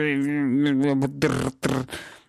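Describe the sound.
A voice mimics a dial-up modem connecting: a warbling, buzzy tone for about a second, then harsh hissing static bursts, loud, with no actual words.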